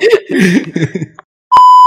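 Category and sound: vocal imitation, voice imitating a chainsaw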